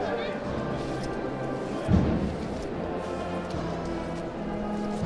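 A steady, rhythmic scrape of many feet dragging together as float bearers shuffle forward, with a low crowd murmur around them and one heavier thud partway through.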